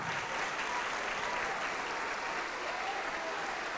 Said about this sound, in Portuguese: E ele é digno de receber a melhor salva de palmas. A melhor, a melhor que já se ouviu neste lugar.